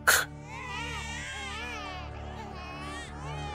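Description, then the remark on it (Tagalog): Babies crying in a continuous, wavering wail that rises and falls in pitch, steady and moderately quiet throughout, with no talking, after a brief sharp knock at the start. “Naririnig ko na may mga sanggol na umiiyak.”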